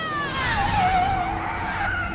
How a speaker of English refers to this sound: That screech of the brakes meant that the Cosmic Cruise bus was coming to a halt on the planet Trancelore.